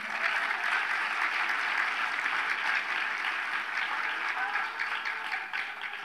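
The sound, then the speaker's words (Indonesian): An audience breaks into steady applause, a dense, crackling wash of many hands clapping that holds at a fairly even level for about six seconds with no talking over it. “Kok nggak ada yang tepuk tangan ini?”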